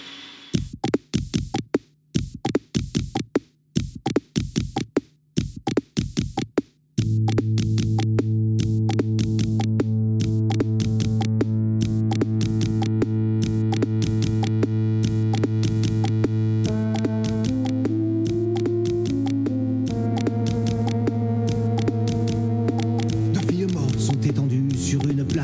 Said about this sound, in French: Donc là, on est plus sur de l'électro. Et sur ce, titre-là, il y a un featuring avec, euh, avec un chanteur dont je vous laisse deviner si vous reconnaissez, la voix.